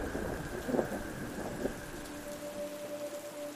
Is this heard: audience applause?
no